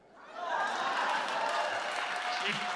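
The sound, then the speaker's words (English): An audience breaks into applause, swelling quickly from quiet into a steady, dense wash of many hands clapping at once, with a faint murmur of voices mixed in, holding loud until the end. “Poor Jeb, please clap.”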